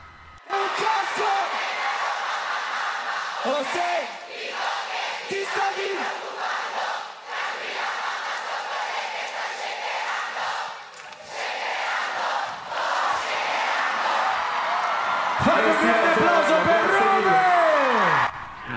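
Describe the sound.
A large concert crowd chants along to an Italian urban music song together in a loud, continuous roar of many voices, with cheers and whistles swelling toward the end.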